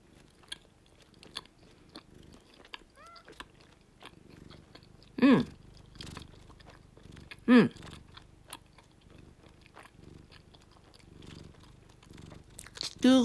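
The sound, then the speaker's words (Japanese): Someone chews a candy filled with sweet-sour orange syrup, with steady, faint crunchy clicks and smacking through the whole stretch, broken by three louder, short tonal bursts. No one speaks. “食べてみます。”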